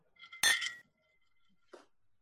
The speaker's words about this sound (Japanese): サルーテ、健康って言って乾杯をしますので、今日も一緒にサルーテで乾杯しましょうか。ぜひぜひ。はい。はい。ではでは、サルーテ。サルーテ。サルーテ。